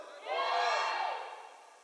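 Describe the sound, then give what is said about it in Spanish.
A sermon audience shouts together in response to the preacher in one loud, sustained burst of many voices, swelling quickly, holding for about a second, then tapering off. “Son bien gritones estos vatos”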